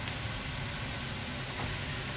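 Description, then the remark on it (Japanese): A steady, dense sizzle of Maruchan supermarket yakisoba noodles frying in a pan, three portions each cut into four with a knife, continuous with a broad crackling hiss and no voices. “妻が帰ってくる前に慌てて焼きそばを作ってる音”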